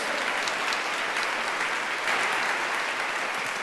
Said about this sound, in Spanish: Amén. Da un aplauso al Señor. Porque así es.